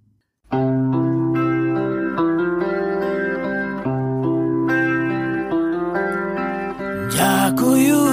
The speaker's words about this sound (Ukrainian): Тоді для початку слухайте пісню. Це гурт ….